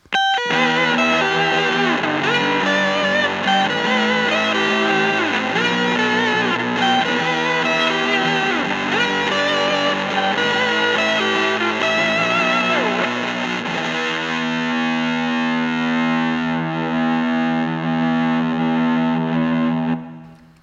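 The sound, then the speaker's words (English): A heavily distorted electric guitar played through a Pep Box 2 and an Earth Drive pedal plays a sustained, fuzzy power-chord riff with thick overdrive, loud, shifting into ringing held chords near the end before fading out. No voices. “The combination of the pep and the earth drive is silky, which I like.”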